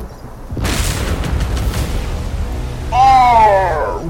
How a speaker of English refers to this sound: And suddenly, the lightning, the lightning strikes down.